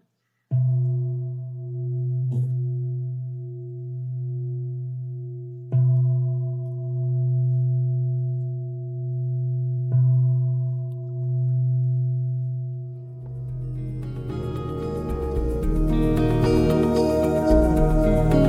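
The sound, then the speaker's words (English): A deep bell is struck four times at uneven intervals to end the session, each strike adding to a long, steady humming ring that wavers gently. After about thirteen seconds, louder music washes in over it. “Can't end without the bell.”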